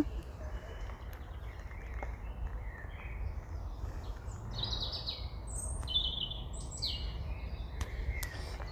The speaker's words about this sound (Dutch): Maar geniet van de vogels.